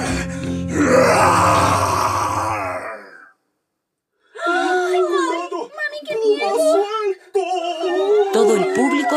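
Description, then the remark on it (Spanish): A human voice imitates a big, growling roar as Quintún, a character in a Spanish-language story, knocks the animal tamer to the ground. The roar is loud and drawn out for about three seconds, then cuts off. After a short silence, people talk excitedly. “Bota al domador al suelo y lanza un gran rugido.”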